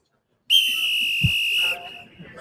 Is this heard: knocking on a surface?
no